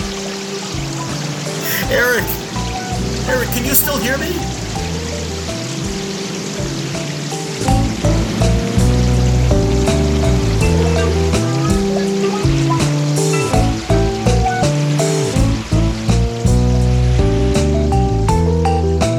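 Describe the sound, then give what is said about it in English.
Steady rushing, pouring water runs throughout, rising until it nearly reaches a man's feet, mixed under loud, sustained music, while a man calls out urgently over it. The flow stays constant, never stopping. “The water is nearly at my feet now.”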